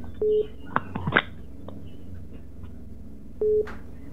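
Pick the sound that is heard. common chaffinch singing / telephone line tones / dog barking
telephone line tones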